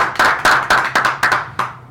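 Audience applause for a performer at a show, in a steady, rhythmic beat, about seven loud, sharp claps roughly a quarter second apart, with a continuous wash of clapping filling the gaps and no voices.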